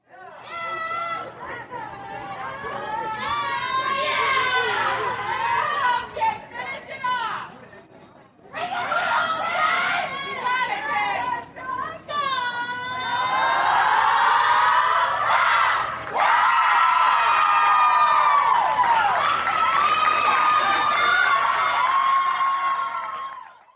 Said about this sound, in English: the time they were at Georgia, and how rowdy they were, and how you could just hear them just cheering and going on. Well, let me tell you, that is how they always are. And I recorded some of it, so take a listen for yourself.